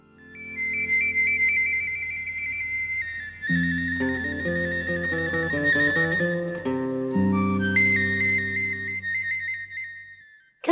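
signal or alarm, phone ringtone

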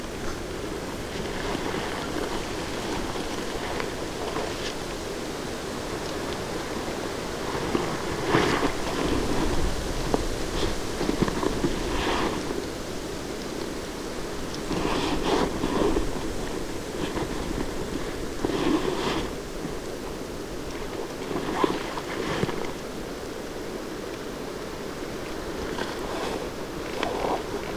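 nature, strong wind blowing

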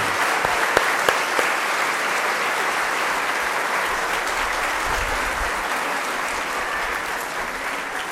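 crowd, applause

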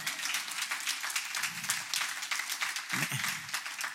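crowd, audience clapping

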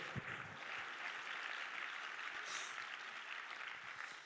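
crowd, audience clapping hands

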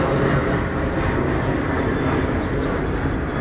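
vehicle, airplane flying overhead

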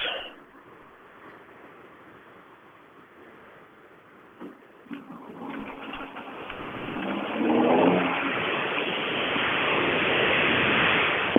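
vehicle, car engine running

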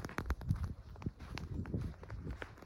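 nature, footsteps crunching on snow

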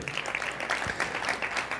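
crowd, audience clapping

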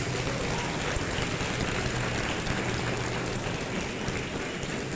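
crowd, audience applauding

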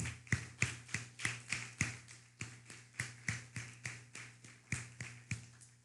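crowd, applause

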